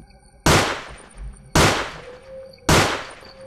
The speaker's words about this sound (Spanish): se escucharon tres disparos de arma de fuego. El sonido venía de por ahí donde andaban esas extrañas luces.